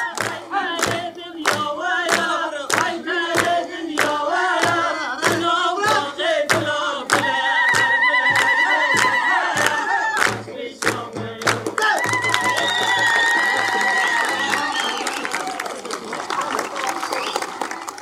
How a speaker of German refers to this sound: ist die ganze Gruppe zusammen in einem Kreis und stellt die Verteidigung, die Selbstverteidigung des Camps dar und fängt ein Lied an zu singen. Das ganze Publikum macht mit und ein Tanz beginnt.